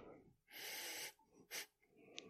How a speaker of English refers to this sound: All right, let's see. Let me get a whiff of this. Hmm. Okay, it doesn't really have much of a smell.